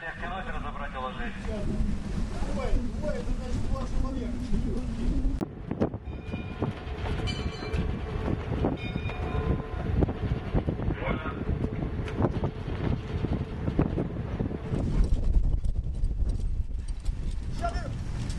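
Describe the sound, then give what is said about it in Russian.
A crew doing all-hands work aboard a sailing ship on an expedition voyage: overlapping voices call out amid steady thumping, creaking and clattering, a dense, busy din that stays loud throughout. “Поэтому вот вам звук аврала, пускай ваше воображение дорисует картинку.”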